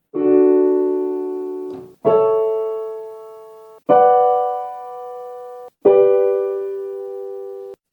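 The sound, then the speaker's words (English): Four sustained chords are played one after another, each struck cleanly and left ringing for about two seconds before the next: the I-V-vi-IV progression in D major (D major, A major, B minor, G major), with no voices. “So applying this common chord progression to D major, it sounds like this.”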